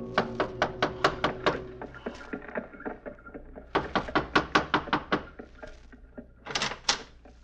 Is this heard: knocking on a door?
yes